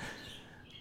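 Soft, high chirping and twittering from parakeets right beside each other, a continuous busy warble in the background, with no voices present.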